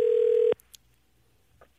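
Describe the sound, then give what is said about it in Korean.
A steady telephone dial tone hums for about half a second, then cuts off abruptly, followed by a few faint clicks and brief beeps as a call is placed. “자, 한번 걸어볼게요.”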